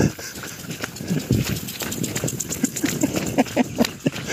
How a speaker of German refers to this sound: Ihr hört es vielleicht, da ist ein Rasenspringer so eingestellt, dass man rennen muss, um durchzukommen.